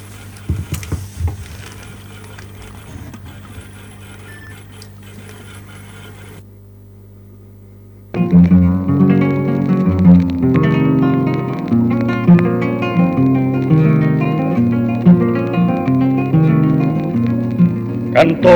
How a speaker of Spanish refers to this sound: lo vamos a escuchar con el tema …. Es un poquito largo, pero escúchenlo. Escuchen la letra